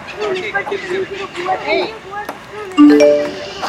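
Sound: phone message notification ding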